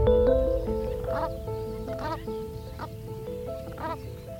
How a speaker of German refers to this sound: Du hast Enten auf dem Dach sitzen.